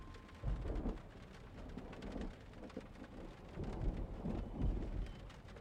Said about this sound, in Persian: بارون میاد